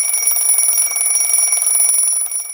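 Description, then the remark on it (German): An alarm clock rings continuously with a bright, steady, high-pitched electronic tone, loud, with no voices present. It rings early in the morning while it is still pitch dark. “Am frühen Morgen läutete mein Wecker und riss mich aus diesem komischen Traum.”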